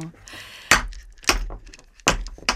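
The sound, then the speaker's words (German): Stones on the shore of the Vltava river are moved by the water, knocking and clattering against each other, four or so sharp clacks at uneven intervals over a soft wash of moving water, with no voices. “Und am Ufer hört sich das dann so an. Und die Steine vom Wasser.”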